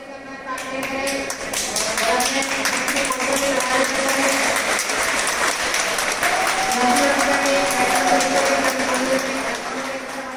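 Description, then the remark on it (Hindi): Police and railway staff clap steadily and continuously for about ten seconds to see off migrant workers on the first special train from Lingampally, Hyderabad, to Jharkhand, a dense, even patter of many hands, with voices audible underneath the applause. “जब पुलिस और रेलवे कर्मियों ने तालियों के साथ उस ट्रेन में सवार प्रवासी मजदूरों को रवाना किया था तो नजारा देखने वाला था”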